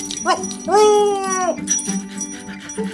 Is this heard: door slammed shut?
no